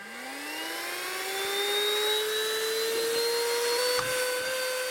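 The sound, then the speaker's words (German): A vacuum cleaner sucking up beach sand whines up to speed and keeps running loudly, its steady motor drone broken once by a brief rattling clatter as gritty sand gets sucked in. “Oh, jetzt wird ja richtig schwer schon dein Staubsauger.”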